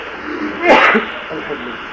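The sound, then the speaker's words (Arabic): A single sharp, explosive sneeze bursts out briefly over a steady background hiss, fairly loud, then fades back into quiet background noise. “رحمك الله”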